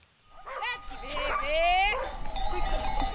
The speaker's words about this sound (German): treibt ihre 300 Schafe einen kleinen Feldweg hinunter. Wie jeden Morgen zwischen April und Januar geht es auf die Weide.